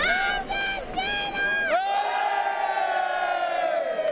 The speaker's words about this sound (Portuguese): As ruas de Doha ganharam os gritos de campeão depois que o gênio da camisa 10 comandou a libertação do país.